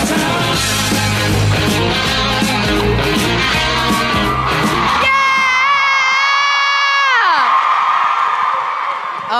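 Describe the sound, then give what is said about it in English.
A crowd in DC cheers and roars loudly as Antwon Tanner is brought out, then a single high, sustained scream rises above the noise, holds steady for a couple of seconds and slides downward in pitch as the cheering fades. “All right, y'all better get loud for Antwon Tanner and Lee”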